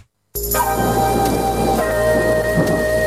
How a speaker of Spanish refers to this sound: Oye, ¿por qué está lloviendo tan duro? ¿Qué es lo que va a pasar en las próximas horas?